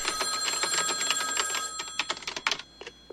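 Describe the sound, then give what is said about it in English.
An old-fashioned telephone bell rings with a rapid metallic trill, then trails off into a few separate clangs as the ring ends, clear and with no voices; it is Meg Ryan's phone being called by Billy Crystal in a film scene, before a voicemail is left. “But I was I was thinking um, in this one where uh, where Billy Crystal is calling Meg Ryan's phone and like leaving voicemails.”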